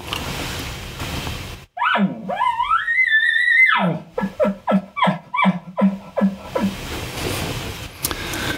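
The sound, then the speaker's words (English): A bull elk gives a roundup bugle: a high, rising squeal holds for about two seconds, then breaks into a rapid series of deep, rhythmic grunting chuckles before fading into outdoor quiet. “And then there's something else that's called a roundup bugle that bulls will do.”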